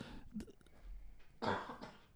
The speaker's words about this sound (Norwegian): lite host der, ikke korona.